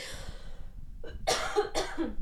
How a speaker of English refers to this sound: excuse me, sorry, still have this stupid cough.